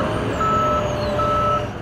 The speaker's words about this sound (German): Der Hafen von Mombasa, riesige Containerschiffe aus aller Welt löschen hier ihre Ladung für ganz Ostafrika. Darunter jede Menge Autos, verschifft in Europa und Japan und fast alle gebraucht.